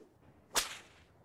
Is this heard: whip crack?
yes